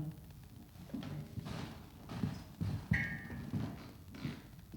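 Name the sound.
footsteps approaching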